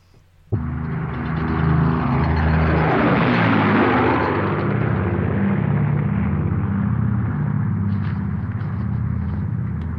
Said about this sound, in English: Yeah. About all these low flying planes because he doesn't know what's going on, right?